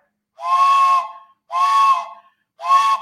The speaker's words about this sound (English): and I heard the whistle, I started to get mad. And I said, I hate train whistles.